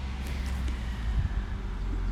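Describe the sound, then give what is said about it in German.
Steady low rumble of traffic on a street outdoors, heard while someone sits outside waiting for a car at a repair workshop; a continuous wash of passing cars with some wind buffeting, fairly loud, with no voices. “Ich entschuldige mich jetzt schon mal direkt von Anfang an für die Hintergrundgeräusche. Ich sitze hier draußen und warte auf mein Auto.”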